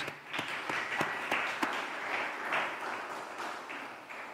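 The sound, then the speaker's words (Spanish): An audience applauds for Jesus, a dense wash of many hands clapping at steady volume, with a few sharper individual claps standing out. “Vamos a darle un fuerte aplauso a Jesús.”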